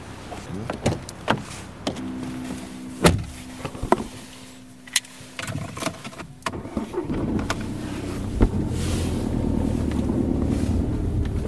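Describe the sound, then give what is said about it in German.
A car is unlocked with a beep, followed by sharp door clunks and rustling as someone gets in, then the engine starts and settles into a steady running hum. No one speaks. “Auto auf, einsteigen und losfahren.”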